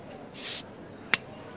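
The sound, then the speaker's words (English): A bottle is opened with a short, bright rush of fizzing hiss, then a single crisp pop a moment later. It is clear, with no talking. “Otherwise, sit back relax, pop a bottle.”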